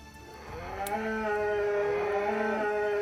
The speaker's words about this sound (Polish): Gdzieś z lasu. Tak. Wycie to nagle się, się urwało.